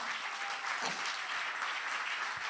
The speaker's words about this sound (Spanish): Si le va a dar el aplauso al Señor.